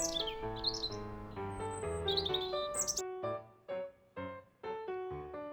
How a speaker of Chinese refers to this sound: 哇！哈哈，你们看，森林里的小鸟通通都被我吓得飞走喽！